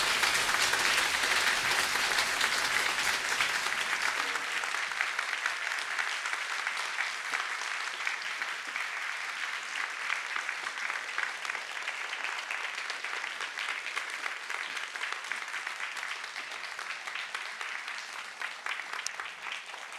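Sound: warm audience applause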